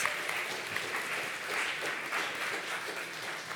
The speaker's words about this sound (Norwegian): Jeg vil gi han en applaus.